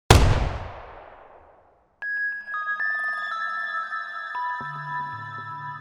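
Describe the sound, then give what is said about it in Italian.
A single loud gunshot fired in a bedroom cracks at the start and rings out in a long, fading echo, followed after a brief silence by sustained tonal electronic music. “In effetti Sharon è entrata nella loro camera da letto perché ha sentito il suono di uno sparo.”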